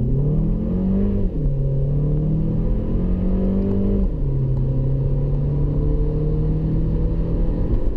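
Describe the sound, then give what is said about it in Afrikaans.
An Italian car's front-wheel-drive 1.4 turbo engine (103 kW, 230 Nm) accelerates steadily and loudly on the Highveld, its pitch climbing and then dropping at two smooth gear changes of a 6-speed dual-clutch automatic before rising again, with a constant low road rumble underneath and no talking. “Die 1.4 turbo stuur 103 kW en 230 Nm na die voorwiele via 'n seepgladde 6-spoed dubbelkoppelaar outomaties.”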